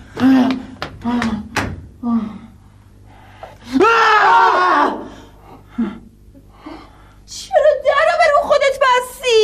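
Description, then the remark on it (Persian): A man's voice imitates a cow with two drawn-out, wavering moo-like bellows, loud, separated by brief bits of speech and a few short knocks. “صدای گاو چرا در میاری؟”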